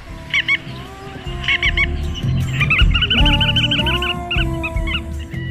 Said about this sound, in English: Well, part of that sounded like Godwit, sort of. The non-stop, direct flight, migration champion of the world, Limosa lapponica, the bar-tailed Godwit.